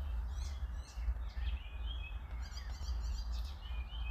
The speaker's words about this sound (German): Ihr hört, ihr hört die Vögel bestimmt im Hintergrund. Ja, die Vögel, das, das, das Quietschen der. Keine Ahnung. Vögel.